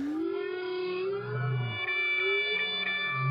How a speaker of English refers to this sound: They're interested in new sounds. So, all the humpback whales in any one ocean are singing one song and then they change it altogether. No one knows why. Why do they want to change their song if they all want to sound the same?